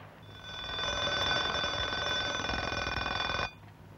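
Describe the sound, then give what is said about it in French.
An alarm clock rings loudly and continuously for about three seconds, a harsh, rapid metallic bell rattle that builds quickly and then cuts off abruptly, leaving near silence. “Alors demain, réveil à 2 heures.”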